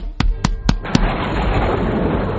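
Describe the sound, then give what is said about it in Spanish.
A hand smacks J.J. Benítez's book "El día del relámpago", published by Planeta, four times in quick, even succession, each slap sharp and loud, followed by a steady rushing, crackling noise that continues to the end. “Eh, soy yo dando al libro de JJ Benítez el día del relámpago que ha publicado la editorial Planeta”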